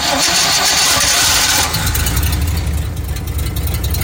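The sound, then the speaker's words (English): A cold engine with a Motorcraft 2100 carburetor, on a very cold day, cranks with a loud, grinding starter whir for over a second, then shifts into a low, rough rumble as it struggles to catch, with no voices. “All right, it wants a little more gas.”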